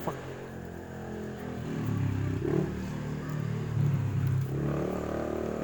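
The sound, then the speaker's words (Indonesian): A motorcycle engine drones past outside, its low rumble swelling after a quiet start and holding steady for several seconds at moderate loudness. “aduh ada motor gitu.”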